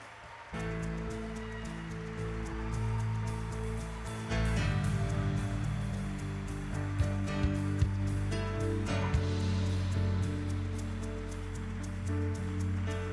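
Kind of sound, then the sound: crowd, audience applauding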